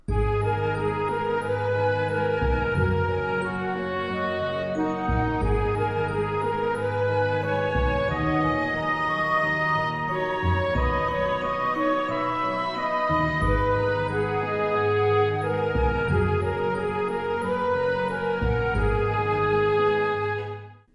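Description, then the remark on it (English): A full orchestra plays the opening melody again at steady volume, with a flute countermelody weaving faintly above and pizzicato double basses marking the beat underneath, no voices present. “the addition of those pizzicato in the double basses. And it just plays that first melody again”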